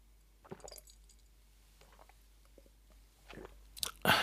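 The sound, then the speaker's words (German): Chewing and biting, with irregular crunchy, moist bursts separated by quiet pauses, growing louder toward the end with a sharp crunch. “ist doch schön zu hören, dass es dir schmeckt.”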